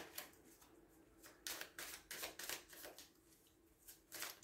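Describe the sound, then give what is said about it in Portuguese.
A Rider-Waite tarot deck is shuffled, a run of crisp papery riffles and slaps in uneven bursts, fairly soft, with no one speaking. “Vamos voltar a colocar aqui isto. Vamos utilizar o mesmo baralho de Rider Waite”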